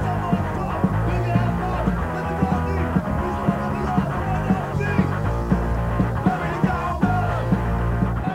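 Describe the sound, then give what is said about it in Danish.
A band plays live, loudly and continuously, at the Ungdomshuset youth house in 2001, with driving drums keeping a steady beat under thick, distorted guitar and bass, recorded raw with possible shouted vocals. “Det er lyden af min ungdom, det der.”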